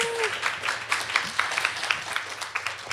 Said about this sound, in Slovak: A e, potlesk, prosím vás.